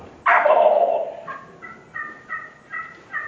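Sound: wild turkey gobbling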